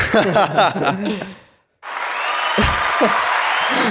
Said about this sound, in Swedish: Applåd, applåd